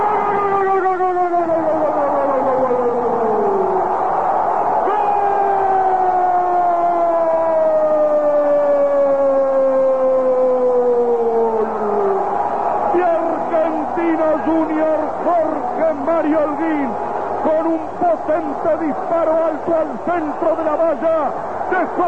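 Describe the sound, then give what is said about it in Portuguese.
A stadium crowd of Argentino Junior supporters roars after their team scores a penalty goal against Temperley, a dense, steady wall of cheering under a long, drawn-out shout that slides downward in pitch before breaking into excited, rapid calling. “picando la pelota en el fondo y estalló el estadio donde está en este momento la hinchada de Argentino Junior.”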